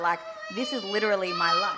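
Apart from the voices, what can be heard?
young child crying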